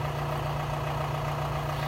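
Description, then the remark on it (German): A car engine rumbles steadily with a deep, even hum that stays at a constant level throughout, with no voices over it, as a car approaches. “jetzt kommt hier ein Auto”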